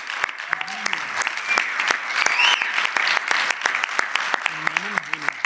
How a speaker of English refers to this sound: big round of applause for